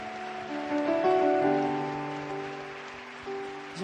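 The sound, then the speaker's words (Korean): An audience at a worship service applauds the Lord in a dense, steady patter of many clapping hands lasting about four seconds, with soft sustained musical chords held underneath. “찬양 받으시는 주님 앞에 다시 한번 더 영광의 박수 올려드리겠습니다.”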